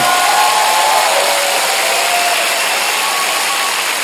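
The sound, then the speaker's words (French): A loud, sustained roar of a large live show crowd in Lausanne cheering and applauding, a dense steady wash of noise lasting the whole few seconds with no clear individual voices. “Mesdames, messieurs, je vous demande de garder la même énergie. On augmente, on augmente, on augmente, on augmente, on augmente.”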